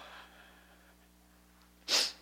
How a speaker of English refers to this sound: anyways, don't shake my hand because I've been sniffling all over it.